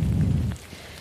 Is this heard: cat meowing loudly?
no